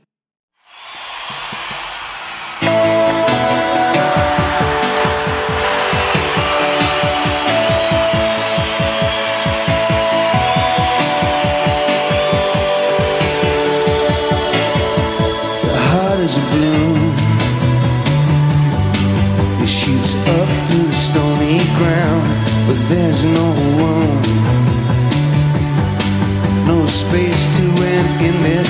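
A rock song opens with sustained, shimmering chords, then a steady drum beat and bass kick in about halfway through, the music staying loud and full with no talking.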